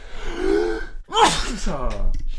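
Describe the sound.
A single loud sneeze: a sharp breathy intake rising in pitch, then an explosive burst of noise trailing into a voiced tail. Someone is speaking faintly just before it.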